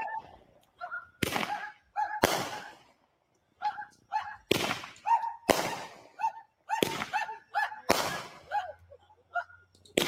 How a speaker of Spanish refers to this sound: Hay un, link, no, perdón, un video, un video por ahí de unos fuegos artificiales que hay en Tampa. Unos fuegos artificiales que hubo en Tampa.